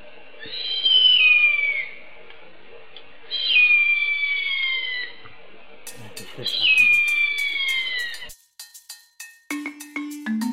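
A harpy eagle gives three long, high-pitched wailing whistles, each sliding downward and evenly spaced, loud and clear. Brief clicking and a low tone follow at the end.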